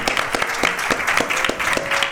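An audience applauds dubbing actor Sergi Zamora as he is invited up onto the stage, a dense wash of many hands clapping with sharper individual claps popping out in an irregular rhythm, fairly loud throughout with no talking.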